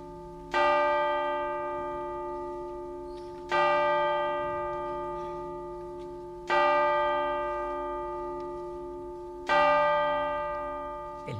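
A church bell tolls slowly, four heavy strikes about three seconds apart, each ringing out with a long, shimmering decay that hangs in the air before the next stroke.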